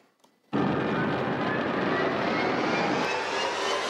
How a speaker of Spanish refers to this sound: al convertirse en la primera persona en aterrizar un avión en la pista de helicóptero sobre este espectacular edificio de 56 pisos en Dubái. El piloto Luke Chapiela tuvo que realizar varios intentos antes de lograr la hazaña.